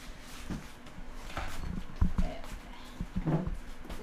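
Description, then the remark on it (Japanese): A steady electric fan whirs while it is handled, with scattered clicks and knocks as it is turned to face another way and switched to its low setting; no one speaks. “ちょっと扇風機の音うるさいかな向き変えますね扇風機のね”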